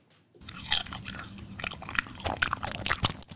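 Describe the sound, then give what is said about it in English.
Loud, wet crunching as someone chews a pickle, with a quick series of sharp bites and juicy crackles repeating irregularly for a few seconds, no talking. “WARNING: CRUNCHES AHEAD”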